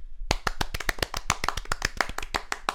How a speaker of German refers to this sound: Wir haben noch gar nicht geklatscht heute. Lass mal Newcomer-Applaus geben.